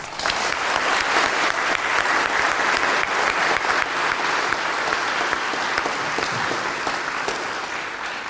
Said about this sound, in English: First, once again, we want to thank our speakers for taking some time out of their day to speak to us about their experiences, their thoughts, and wishes. Please give them another round of applause.